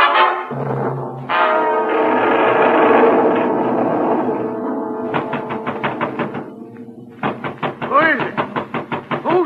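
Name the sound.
knocking on a door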